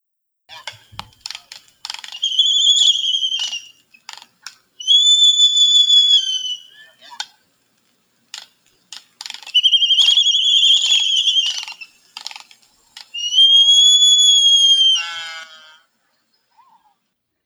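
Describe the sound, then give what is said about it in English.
A seabird gives four drawn-out, wheezy sky calls at a steady pace, with dry clicking rattles in between; the final call ends in a lower, honking note. “So yeah, that last like honking yeah, is uh so you can hear some of the the sky calling in that uh mm-hmm. in that audio”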